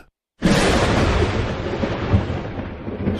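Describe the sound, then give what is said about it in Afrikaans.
After a brief silence, a loud, deep rumbling bursts in and roars steadily on, a heavy thunderous shaking of the earth with no voices. “Sê sy en sy vat die vier punte van die kombers wat die aarde is saam en sy skud dit hard. Die hele aarde ruk en bewe.”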